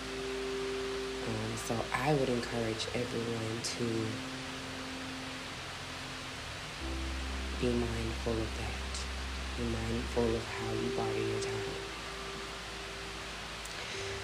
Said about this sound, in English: So nature decided to rain on us today beautifully.